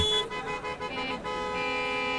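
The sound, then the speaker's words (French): Several car horns blare at once in a stalled traffic jam near a crossroads, overlapping sustained honks of different pitches forming a steady, moderately loud chorus with no voices. “Un concours de klaxons se fait entendre proche du carrefour vers lequel je me dirige.”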